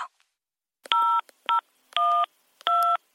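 Four telephone keypad tones, each a steady two-pitch beep, pressed in an uneven rhythm with short gaps between them, clear and moderately loud with no talking, as a password is entered on an automated bank telephone service for a balance inquiry.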